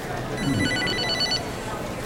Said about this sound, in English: What's that? I think it's your phone. What? Your phone,